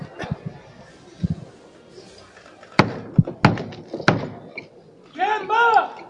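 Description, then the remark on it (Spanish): Several heavy, resonant knocks strike a church door at uneven intervals, loud, with a low crowd murmur beneath. This is a religious brotherhood's ceremonial call before the doors of Belén y San Roque open, and voices rising just afterward. “Escuchamos la llamada.”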